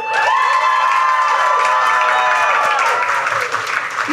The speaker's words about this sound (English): Can we all get a round of applause for our host?